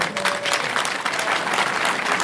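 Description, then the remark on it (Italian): A crowd in a town square claps steadily for visitors from the Aosta Valley, a dense, continuous patter of many hands that stays fairly loud and even throughout, with no voices standing out above it. “e se ci sono dei valdostani qui in piazza facciamo un, un bel applauso a chi ci ha raggiunto.”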